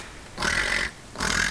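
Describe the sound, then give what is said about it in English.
A giant otter about ten feet away gives two harsh, raspy grunts in close succession, each about half a second long, loud and close, with a brief pause between them and no talking. “That grunting sound is the sound of a giant otter.”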